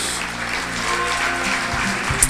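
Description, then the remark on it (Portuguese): An audience applauds God and the name of Jesus, a dense wash of many hands clapping at a constant loudness, with low sustained tones underneath and no voices standing out. “Nós aplaudimos o teu nome, Jesus.”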